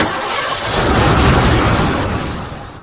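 A car engine turns over and catches, swelling into a loud, rough roar before easing off over a few seconds, with no voices.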